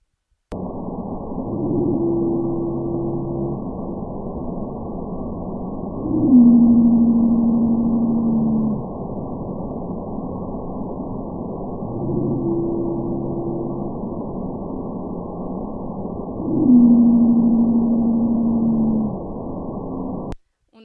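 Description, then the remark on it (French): A pygmy blue whale song from the Madagascar population, in two repeated phrases, each pairing a low pulsed unit with a long, steady tonal moan. The deep calls stand alone over a constant background hiss. “Pour faire la différence, on a également, tout à l'heure, je parlais des baleines bleues pygmées, dont on a euh, des populations acoustiques qui sont différentes. Donc on a la population qu'on dit euh, de Madagascar, donc voici le chant.”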